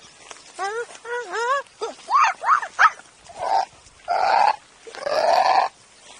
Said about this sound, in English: So that's where they, you know, that well, that's actually a desert bird, but it, uh, it's a kookaburra, but but.